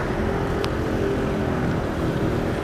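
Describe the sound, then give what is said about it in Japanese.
A car passes close by, its engine and tyre noise forming a loud, steady low rumble that fills the whole moment with no one speaking. “今ちょっと近くを車が通ったんで少し大きな音だったんじゃないかなと思うんですけど”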